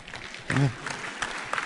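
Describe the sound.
Brief scattered applause from an audience, a steady wash of claps with a voice briefly rising over it around the middle, moderately loud throughout.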